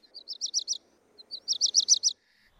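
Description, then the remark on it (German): A black redstart sings two short phrases, each a quick series of bright, clear notes. The phrases are separated by a brief pause, against a quiet background. “Da ist der Hausrotschwanz dabei,”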